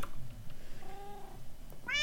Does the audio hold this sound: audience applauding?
no